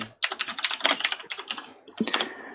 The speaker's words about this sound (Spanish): tenemos a Luis Fe, que nuestro escriba hoy, y esas teclas que habéis escuchado